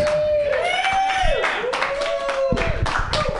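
An audience at an open mic claps steadily for a few seconds, the dense patter joined by a high, sustained whistle-like tone that rises and dips over the applause.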